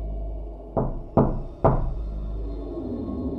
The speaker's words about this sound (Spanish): Ese día por la mañana, escuché claramente que tocaron a la puerta de mi cuarto.